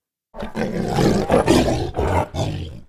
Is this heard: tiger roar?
yes